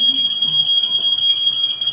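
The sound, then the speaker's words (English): A fire alarm being tested blares continuously with a steady, piercing high-pitched tone, loud and unbroken throughout, while faint voices murmur underneath. “it's the fire alarm. They're just testing it, unless we suddenly start smelling smoke.”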